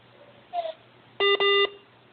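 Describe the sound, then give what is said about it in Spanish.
A faint short chirp followed by two loud, steady electronic telephone beeps in quick succession as a phone call is cut off, with no voices present. “Ah, me la cortaron, son rabiosos.”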